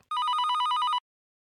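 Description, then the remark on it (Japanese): A telephone rings in a single sustained electronic burst lasting about a second, with a rapid trilling warble, clear, followed by silence, signalling an incoming answering-machine message. No voices. “はい来ました来ました留守番電話入ってますね”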